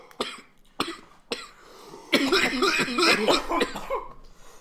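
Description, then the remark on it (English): Three sharp, separate coughs ring out, then give way to a longer, harsh run of raspy, throaty coughing that gradually fades out, after a person takes a big dab of Gluerangutan. “Every time I cough, I get a little like sweeter taste from the OG.”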